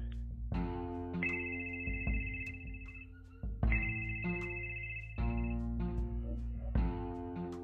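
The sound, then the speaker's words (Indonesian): An outgoing phone call rings out with a repeating electronic tone pattern, the same bright melodic phrase cycling several times at a steady pace, clear and moderately loud with no voices. “Oke, okay? mulai gue telepon ya.”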